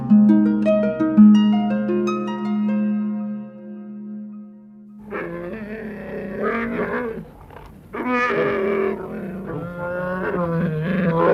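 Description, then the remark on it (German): A few seconds of soft tonal music give way to a wild bear roaring and growling, loud and rough, in two long drawn-out bursts separated by a brief pause. “Er ist wieder da, der wilde Bär.”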